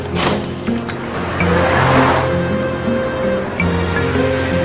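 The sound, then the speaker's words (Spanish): A car drives steadily through a city, its engine humming and rising slightly in pitch as it speeds up, with a broad rush of road noise and no voices. “Él va todos los días con el carro y recorre la ciudad.”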